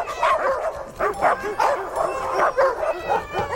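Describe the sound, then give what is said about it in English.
A chorus of many dogs in a pet food commercial barking and yipping excitedly over one another, with a few whimpers mixed in, a dense, continuous jumble of overlapping barks. “But my nightmare was this: she's standing there in front of thirty dogs and a couple of cats, and she's saying, Who's hungry?”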